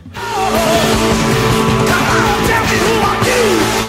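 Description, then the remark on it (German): Loud, driving rock theme music from a TV crime drama, dense guitars and steady beat with a shouted, gliding vocal line, playing continuously at full volume for a few seconds. “was du da hörst, ist der Theme-Song von CSI”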